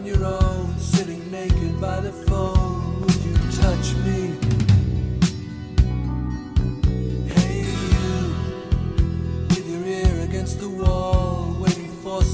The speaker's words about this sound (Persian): همینجوری که داشتم ریشه میزدم رفتم یه آهنگ پلی کردم و گفتم بذار حداقل همینجوری که این موهای سفید داره میریزه توی دارم دونه دونه دارم میبینمشون بذار یه آهنگ مشتی هم گوش کنم